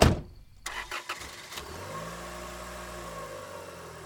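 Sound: car engine starting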